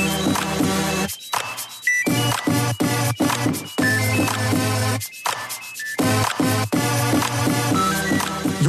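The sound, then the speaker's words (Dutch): Processed sounds of a flying drone, a loud whirring motor drone layered with tonal electronic beeps and the start-up chime of its controller, all from the one device and tweaked by computer, arranged in a dense rhythmic loop with brief dropouts and no talking. “So in the next part of this track I start using more of the drone flying sounds, but there was also this little chime from when the controller starts up.”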